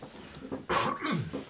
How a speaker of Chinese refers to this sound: 对不起，咳嗽一下。